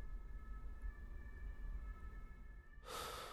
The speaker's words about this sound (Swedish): Oj, nu åker en ambulans här utanför.